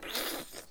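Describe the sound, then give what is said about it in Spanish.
A voice makes a short, harsh ripping rasp, imitating guts being torn out in a gore film: one quick, noisy tearing burst lasting under a second, fairly loud. “Y suena así como le sacan las tripas.”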